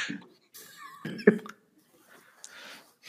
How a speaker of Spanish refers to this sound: y bueno, ay, discúlpenme con, es, la tos, es que ya me, ya me da la tos